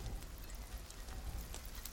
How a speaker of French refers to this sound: Dans le ciel, de gros nuages noirs viennent juste au-dessus de leur tête. Et de grosses gouttes d'eau se mettent à tomber.